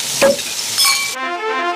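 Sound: steak sizzling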